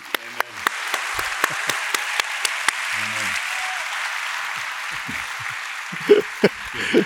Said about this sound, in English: Let's give them a hand. God bless you.